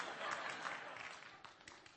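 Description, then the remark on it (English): An audience claps together in steady, dense applause, a soft crackling wash of many hands that eases off slightly toward the end, with no one speaking over it. “Nobody ever claps for me.”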